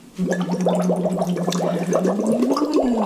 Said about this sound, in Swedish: Okej, nu är det paus för bubblande.